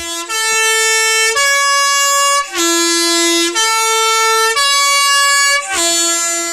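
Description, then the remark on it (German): A Swiss yellow postbus horn blares a loud, three-note melody with sustained brassy tones about a second each, played twice in a row, with no voices; it is heard on narrow Swiss mountain roads when an oncoming yellow postbus approaches. “Denn diese Hupe hört man nur auf den Schweizer Straßen und auch nur dann, wenn einem auf den schmalen Bergstraßen einer der gelben Postautobusse entgegenkommt.”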